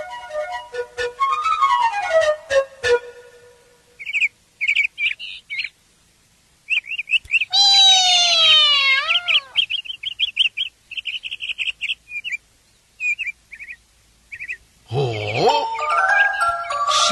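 small birds chirping

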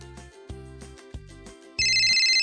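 telephone ringing

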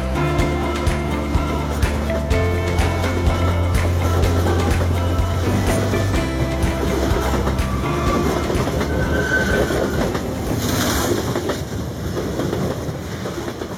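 train running on rails

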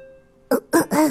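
throat clearing

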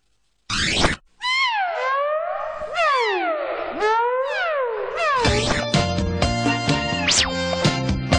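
kitten meowing

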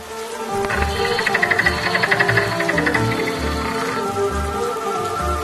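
raindrops falling

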